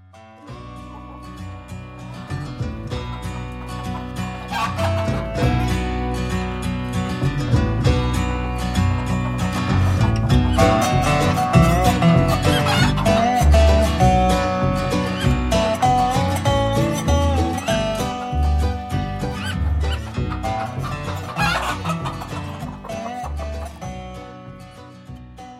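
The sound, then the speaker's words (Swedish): A dense, unbroken chorus of many chickens clucking and squawking at old Göransson's hen farm with a hatchery, overlapping calls at steady loudness throughout, with no one speaking. “Vi fortsätter på temat bondgård och bönder och ska besöka gamle Göranssons hönsfarm.”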